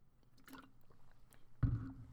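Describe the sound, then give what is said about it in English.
Someone takes a swig of water: quiet wet mouth and liquid sounds, then a fuller gulping swallow near the end, with no talking. “let me take a, a swig of water.”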